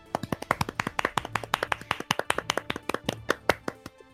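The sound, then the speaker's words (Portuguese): Hand clapping in applause for minister Mandetta, a quick, slightly uneven run of sharp claps lasting about four seconds at a steady moderate loudness, with no voices. “Merece aí nossos devidos aplausos com as eh, devidas ressalvas, com certeza, porque ainda é um ministro do Bolsonaro, mas nossos aplausos aí pro Mandetta.”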